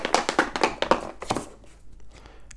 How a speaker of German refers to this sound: Ja, dann, dann würfel doch mal.